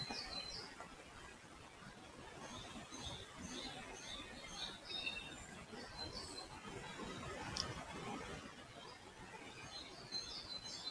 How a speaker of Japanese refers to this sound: あ、鳥の声聞こえてますかいいですよね、鳥ね。朝は格好が鳴いてます。